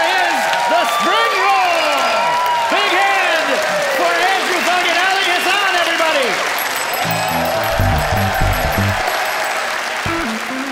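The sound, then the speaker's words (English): Loud, sustained applause from the studio audience of The Debaters on CBC Radio 1, voting for the winner, thick with whoops and shouted cheers throughout, with a brief musical sting rising underneath near the end. “The crowd has spoken.”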